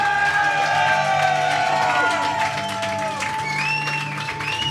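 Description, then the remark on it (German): A crowd applauds and cheers steadily, dense clapping filling the space with a few whoops and whistles rising over it, fairly loud and sustained throughout. “Kann man nochmal einen Applaus für dieses wunderbare Aussehen hier geben?”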